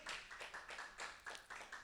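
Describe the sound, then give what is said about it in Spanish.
An audience claps together for the Lord in a steady, quick rhythm, the bright slapping bursts repeating several times a second without voices, forming a lively but fairly soft round of applause. “Y que le podamos decir, denle un aplauso al Señor, hermanos.”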